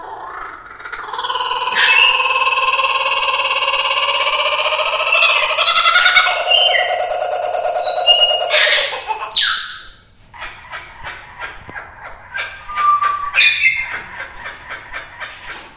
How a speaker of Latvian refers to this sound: Cīņu ar papagaili par mikrofona porlonu vēro turpat līdzās mītošais Austrālijas putns, kuka burra jeb smējēdzēnis, un viņa viedoklis par neveiklo saldvārdu žurnālisti ir skaļš un skaidrs.